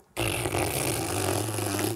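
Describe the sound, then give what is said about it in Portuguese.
A person blows a long, steady raspberry with their lips, imitating the loud fart sound a corpse made when it was turned over. It holds at an even, loud level for almost two seconds before cutting off abruptly. “Aí quando eles viraram o corpo, simplesmente teve um som. Do quê? Um som de pum.”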